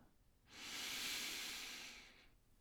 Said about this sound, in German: Ah, und jetzt kontinuierlich atmen, verbundene Atmung, zyklische Atmung ins Herz ein, aus, ein, aus, ein, aus.